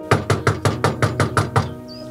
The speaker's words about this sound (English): Knocking on a door, microphone in hand, a camera rolling behind me. This is three days after that group home murder on April 12, 2021.